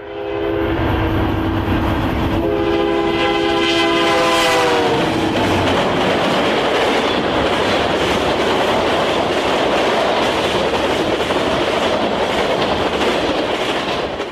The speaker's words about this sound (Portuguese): Então esperei um trem de carga